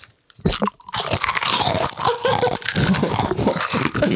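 Loud crunching and chewing of a crisp, vanilla-tasting fortune cookie, with a sharp bite near the start followed by continuous brittle crackling and munching sounds, no talking.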